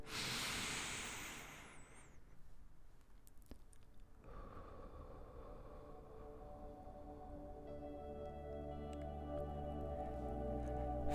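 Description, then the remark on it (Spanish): A deliberate breath rushes in for a couple of seconds, then fades as steady, soft sustained tones swell underneath and continue to the end. No one speaks. “Venga, una pequeña respiración.”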